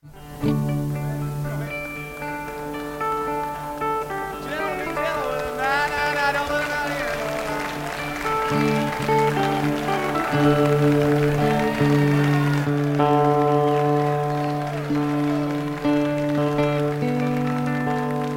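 A concert crowd murmurs and rumbles uneasily during a tuning break, a steady wash of noise with sustained instrument tones humming and ringing over it between songs.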